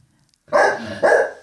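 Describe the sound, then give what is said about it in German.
Two loud dog barks in quick succession after a brief silence, each a sharp, full-bodied woof with a slight tail, no talking. “wenn euch das Bellen von der Mini stört”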